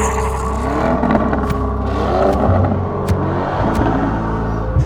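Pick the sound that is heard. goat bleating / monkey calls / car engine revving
car engine revving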